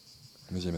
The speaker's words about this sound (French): On peut écouter les cigales aussi, juste deux secondes, tiens, on peut une pause.